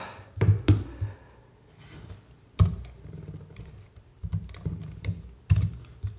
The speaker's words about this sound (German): Tippen, Frage gucken, gleichzeitig in die Tastatur finden.